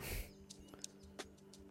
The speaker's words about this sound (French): Merci de m'avoir écouté, et puis désolé pour le bruit du frigo qui s'est mis en marche euh, à quelques minutes de la fin. J'espère que c'est pas trop gênant, c'est pour ça que j'écourte euh, cet audio.